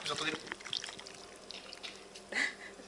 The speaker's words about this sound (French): Donc là vous avez dû entendre euh, la sauce qui coulait sur les cailles. Hmm, ça fait plaisir.